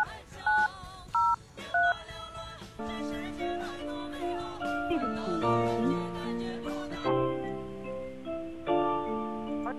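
signal or alarm, telephone keypad dialing tones

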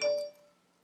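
signal or alarm, text message notification chime

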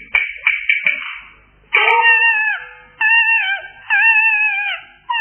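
human body sound, infant crying

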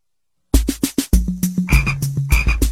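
animal, frog croaking

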